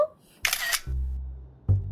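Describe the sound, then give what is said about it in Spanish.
A camera shutter fires as a selfie is taken, with a sharp, bright click, followed by a low mechanical whir for about a second, then another short click. No one speaks. “¿cómo salimos en la foto?”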